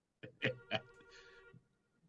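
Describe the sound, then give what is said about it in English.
A faint electronic phone ringtone plays a few quick melodic notes with a sustained tonal hum that lingers and trails off, with no talking over it. “Do I hear a phone ringing?”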